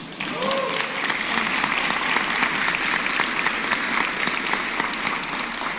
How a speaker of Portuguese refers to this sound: Uma salva de palmas para ele.